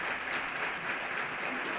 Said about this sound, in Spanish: Se ve al pregonero orgulloso de estos aplausos.